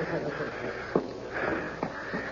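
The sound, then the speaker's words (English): Someone sniffling and crying in a room at the far end of a hall: a few sharp, wet sniffs at uneven intervals over a soft, steady hiss, fairly quiet, with no clear words spoken. “There's no need to cry.”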